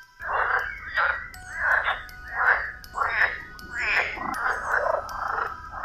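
A chorus of frogs croaking in a pond, about eight loud, raspy bursts in a steady, overlapping rhythm with a low background hum and no talking.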